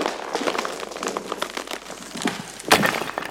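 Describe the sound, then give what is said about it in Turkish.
A honey pot falls from a branch and shatters: scattered crackling, clinking bits rattle for a few seconds before a sharp, loud breaking burst near the end, with no one talking. “bir kırılma sesi Düşbaz'ı uyandırdı. Dala asti, balçana, çana rüyasında attığı tekmeyle düşüp paramparça olmuştu”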